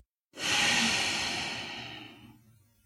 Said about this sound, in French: Maintenant, prenez une grande inspiration par le nez, en remplissant aussi le haut des poumons. Retenez votre souffle. Puis soufflez par le nez.